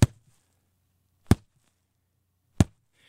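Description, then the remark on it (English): A woman's voice imitates a low-end sweetener effect with three sharp, punchy thumps, evenly spaced about a second apart, each a quick hit with a short low rumble, separated by near silence. “and then at the very end, we'll do something like super sound effecty, low end sweetener of like.”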